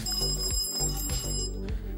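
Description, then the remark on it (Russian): A loud, steady electronic ringing fills the whole stretch, a buzzing alarm-like tone with regular pulses repeating about every half second, continuous with no talking. “Извиняюсь за звонок.”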